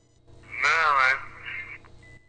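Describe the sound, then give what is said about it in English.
A single throaty grunt from a man, heard over a tinny telephone line with faint line hiss around it; the voice rises and wavers briefly, then trails off into a quieter murmur. “No, that was more of just a guttural grunt.”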